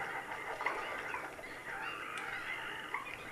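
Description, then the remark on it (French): Marsh birds such as coots, moorhens and purple swamphens call over one another in a dense, continuous chorus of honking and squawking notes, fairly loud, with no talking, at the Étang de Scamandre marsh in the Camargue, France. “Foulque, poule d'eau, euh, poule sultane.”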